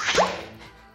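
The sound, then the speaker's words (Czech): A package being unwrapped: one quick rip and swish of wrapping, loudest at the start, then fading into soft rustle. No one speaks. “Pojďme to rozbalit.”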